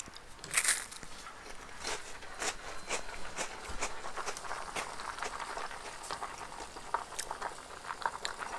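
Crunching of Ritz crackers being chewed as a snack while pasta boils, a steady series of crisp, brittle bites and crackles with a louder crunch near the start, and no talking.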